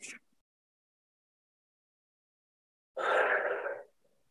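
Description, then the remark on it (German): A brief breathy sound fades into about three seconds of silence, then a loud, forceful exhale rushes out for nearly a second as part of a breathing exercise for stress relief. No one speaks. “Gehen dann nochmal wieder runter, atmen richtig laut aus.”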